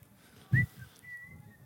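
Someone whistles a tune, a quick high note followed by a longer, steady held note, fairly soft, with a brief low thump near the start.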